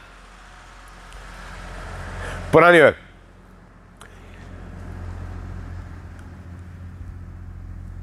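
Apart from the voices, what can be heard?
tractor driving past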